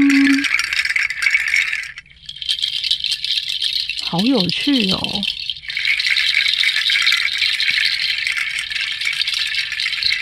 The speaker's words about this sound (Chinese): 第二个声音的， 好像是果实的那种。哦，对对对，就是 这两个是不一样的果实，都是印尼那边的果实。然后他们就是把它晒干之后，把它串起来，然后他们也会制造出很像雨淋里的声音。